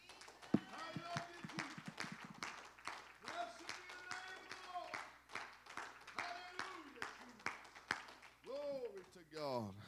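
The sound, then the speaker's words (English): A church audience clapping steadily and continuously as a hand clap of praise after a morning prayer, a dense wash of applause, with voices calling out and cheering over it throughout. “Can we give him a hand clap of praise this morning?”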